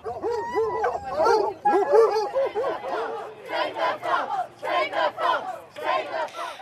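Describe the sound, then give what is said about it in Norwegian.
A large pack of foxhounds bays and howls together in overlapping, continuous cries during a fox hunt in the English countryside, following riders on horseback; loud, forming a dense chorus of yelping voices throughout. “Fulgt av en enda større flokk blodtørstige hunder. Jakten er i gang.”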